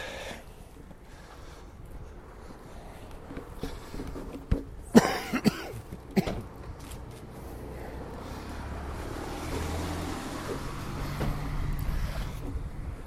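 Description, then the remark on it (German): Wind blowing outdoors on a snowy winter day in Bavaria, under a storm warning, buffets the microphone with a steady low rumble that swells louder in the second half, with a few sharp knocks or cough-like bursts near the middle and no talking. “Ja, äh, gute Bedingungen zum Testen, weil es ist auch windig.”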